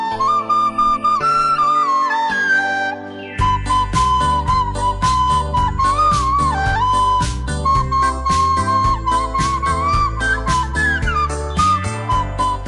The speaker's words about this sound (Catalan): Això és el Jingle Bells, tothom, tothom coneix aquesta cançó, una cançó que forma part d'un repertori que es diu El mal Nadal, que són Nadales mal tocades amb la flauta.